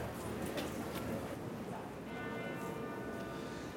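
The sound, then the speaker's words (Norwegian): A steady wash of crowd murmur fills the interior of Notre-Dame as it is entered, and partway through, sustained ringing bell tones rise faintly above the background hum. “Og i 1804, i Notre-Dame, som jeg nå går inn i, kroner Napoleon seg sjøl til keiser.”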